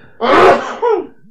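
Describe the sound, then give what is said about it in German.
A single loud sneeze, a sharp explosive burst trailing into a short voiced tail, with no talking around it. “Gesundheit. Sorry, sorry aber es musste raus.”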